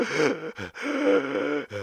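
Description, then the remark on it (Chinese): A voice imitates the strained, choking gasps of someone lying on the ground unable to breathe after being struck from behind by a beginner while sliding down a slope: two long, tight, wheezing vocal pulls broken by short catches of breath, fairly loud and with no words. “就是没有办法呼吸的那个那个声音哦，现在想想都还是觉得蛮恐怖的”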